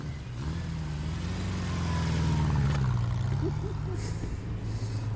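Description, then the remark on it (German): A motorcycle carrying a rider and a passenger sets off and accelerates, its engine running steadily with a low rumble rising slightly as it revs, then settling, with faint wind noise above. “Die ersten Meter vom Motorrad.”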